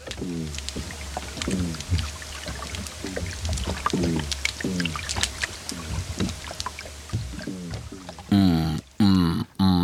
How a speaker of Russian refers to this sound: Это горбыль, это рыба. И главное, нам до сих пор неизвестно, каким местом он издает эти звуки.